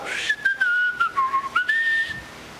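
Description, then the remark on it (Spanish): Someone whistles a short, wavering tune, the pitch dipping and then rising again over a few seconds, clear and unaccompanied. “Hay algo que hiciste mal y tú tienes dos opciones, o corregir lo que hiciste mal, o ignorar, hacer como que nada pasó, salir chiflando.”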